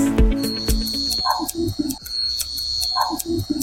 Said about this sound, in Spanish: Ese es el sonido de Chops Barbershop en el centro de Las Vegas.